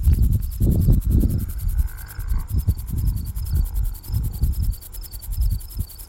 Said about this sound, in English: But I thought I'd sit and listen to these grasshoppers for a second.